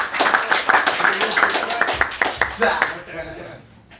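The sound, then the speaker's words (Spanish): An audience applauds with a dense, steady patter of many hands clapping for about three seconds, with some voices mixed in, before the clapping thins out and fades away. “Un aplauso para”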